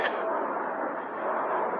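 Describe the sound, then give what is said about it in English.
A steady, loud roar of jet engines from an aircraft taking off, a broad rushing noise that holds constant throughout with no voices over it. “Look at that private jet taking off.”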